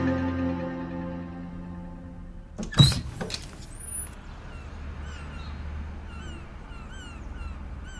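A window is opened: a steady mechanical whir runs for a few seconds, ends in a sharp clunk, then open outdoor air follows with faint seabird cries in the distance.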